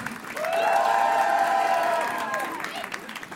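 An audience at a live France Inter concert applauds and cheers as the musicians are introduced, in a loud, steady burst of clapping mixed with high sustained whoops, lasting a couple of seconds before thinning out.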